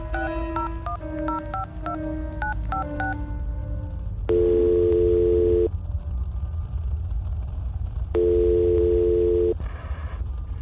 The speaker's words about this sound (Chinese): 他立即拨打女儿的手机。